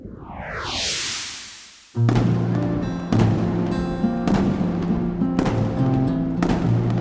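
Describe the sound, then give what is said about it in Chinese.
A rising whistle climbs for about two seconds, then a loud firework bang, followed by four more booming bursts at roughly one-second intervals, each trailing into a crackling rumble. “后来就演变成欣赏用的烟花，还有烟火。”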